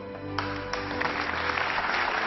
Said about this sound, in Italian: La ragazza non dice niente come al solito, neanche stavolta, mentre tutta la scuola applaude e chiama Franco eroe.